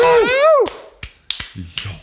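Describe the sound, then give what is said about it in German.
A rising, wavering vocal whoop is followed by about five sharp, crisp hand claps in an uneven rhythm, each a bright, short crack, with faint voice sounds between them, clapping to congratulate someone for solving the last puzzle. “Ich klatsche nochmal für dich.”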